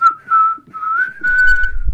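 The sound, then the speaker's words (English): A person whistles a bright, melodic tune, the whistling solo of a song, the notes sliding and held in a continuous line, with a faint low rumble creeping in near the end. “With the whistling solo and everything.”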